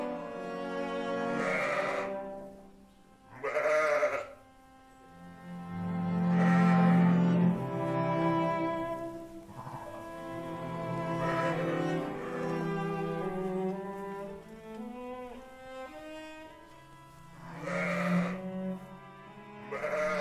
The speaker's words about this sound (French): Vous voulez nous montrer les moutons à l'intérieur ou... Ah si vous voulez. ouais.